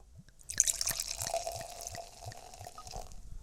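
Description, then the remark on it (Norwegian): Cider from the local Kvestad cidery pours steadily into a glass, with a fizzy hiss and a quick run of gurgling glugs. It starts after a brief quiet moment and no one speaks. “Så vi skal begynne, begynne med litt eh, eh lokal. Den er veldig lokal. Kvestad sideri.”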